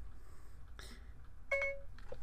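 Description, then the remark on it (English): A phone's Siri voice assistant activation chime, triggered by saying "Hey Siri" without a headset: a short, clear electronic tone that rises briefly, heard once over quiet room hum, with a faint rustle just before it. “It came up.”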